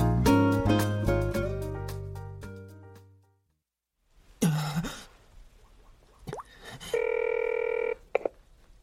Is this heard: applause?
no